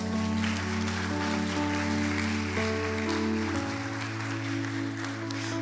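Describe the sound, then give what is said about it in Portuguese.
A crowd claps steadily and densely for several seconds, applauding Jesus, a continuous wash of applause with no voices, while sustained keyboard chords hold underneath and shift once partway through. “Então aplaude Jesus por isso, é.”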